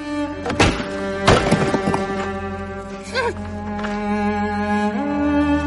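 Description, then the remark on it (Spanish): A few heavy, dull thuds as Tyrion furiously pounds his fists on bricks in rubble, where Cersei lies beneath, coming in a quick irregular burst, heard over a steady, low, droning musical tone that continues throughout. “Tyrion golpea furioso los ladrillos.”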